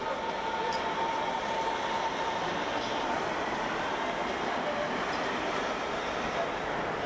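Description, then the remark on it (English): A train pulls into a station platform in Berlin with a steady, loud rumbling roar that holds throughout, a faint high whine running underneath and indistinct voices murmuring in the background. “Caution, the train is arriving.”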